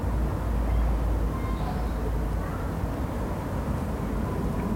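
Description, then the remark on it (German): A steady, low rumble of an airplane passing overhead, holding an even loudness throughout without any clear rise or fade. “Und dann natürlich Flugzeuge. Unvermeidlich.”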